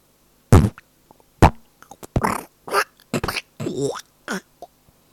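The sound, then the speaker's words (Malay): A rapid series of loud fart sounds, some short sputtering bursts and some longer buzzy, wet-sounding ones, fired off irregularly with brief gaps and no talking. “Anda pernah ada masalah terkincit atau pernah ditegur siapakah yang kentut?”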